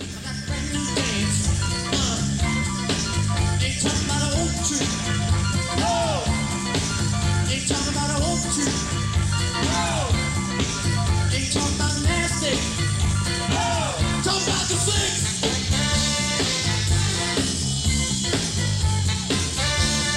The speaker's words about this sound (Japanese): では、…ツアーの音源で